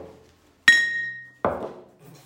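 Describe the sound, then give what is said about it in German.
Two glasses clink together in a toast: a bright, ringing chime that sustains briefly, followed by a duller second knock about a second later, both fairly loud. “Prost.”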